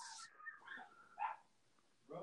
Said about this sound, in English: Oh, dogs.